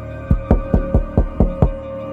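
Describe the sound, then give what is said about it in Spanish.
Seven sharp knocks on a door at a home in a steady, fairly quick rhythm, moderately loud, with a low hum in the background and no voices. “casi despertaba a su hija Kenley Grace de 3 años para comenzar el día cuando llamaron a la puerta”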